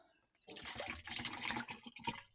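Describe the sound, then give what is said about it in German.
Lemonade is poured into a glass in one steady, splashy stream lasting about two seconds, starting abruptly after a brief hush and ending with a few trickles. No one speaks. “Und hier, du blätterst hier die Limo ins Glas.”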